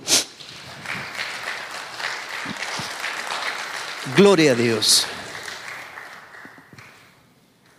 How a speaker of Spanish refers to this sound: Puede sentarse y darle un aplauso al Señor, hermano.